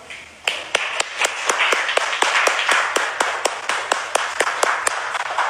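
Audience applause for a participant breaks out suddenly and keeps going, with sharp claps in a steady, near-unison rhythm of about four per second over a dense, continuous wash of crowd clapping.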